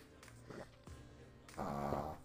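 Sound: dog snoring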